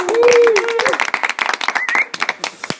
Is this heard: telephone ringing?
no